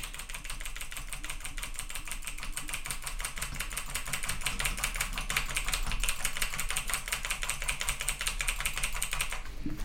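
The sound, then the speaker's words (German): Rapid, dense clicking of a computer keyboard and mouse as someone makes edits with mouse and keyboard, fairly loud, continuing without pause for about ten seconds with no voices. “Jetzt dürftet ihr auch Maus und Tastatur immer richtig laut hören.”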